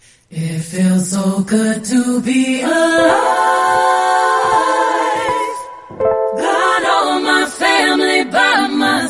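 A pop song with a woman singing a melodic, sustained vocal line over a full, steady backing track, loud and upfront throughout, with a brief dip near the end before the singing resumes.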